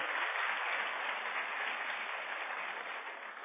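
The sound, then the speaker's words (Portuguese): A crowd claps steadily and densely, applauding the Lord for the life of a visiting pastor from California, a continuous wash of many hands applauding together at even loudness for several seconds, with no voices standing out. “Aplauda o Senhor pela vida dele aí para nós.”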